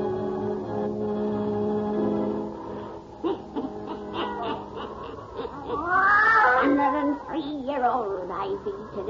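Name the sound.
black cat meowing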